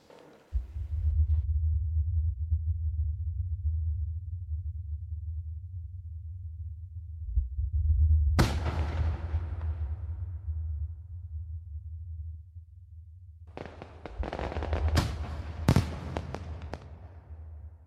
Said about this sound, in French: Elle aime, entre autres, les feux d'artifice. On écoute sa pièce Fireworks.